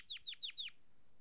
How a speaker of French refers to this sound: Les Canaries mâles sont capables de chanter un grand nombre de phrases différentes qui peuvent être combinées en diverses séquences afin de produire un large répertoire de chants.